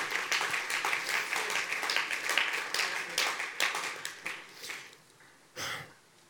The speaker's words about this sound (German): Der, der Gott, glaube mal, komm, lass uns ihm einen Applaus geben.